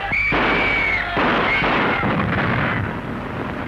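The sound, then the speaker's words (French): Loud, chaotic gunfire crackles through a dense, roaring din, with several sharp bursts standing out against continuous rumbling noise: a scene from the sound version of Abel Gance's film Napoléon, the Swiss Guards firing as the crowd invades the Tuileries. “Qu'est-ce que c'est On a tiré.”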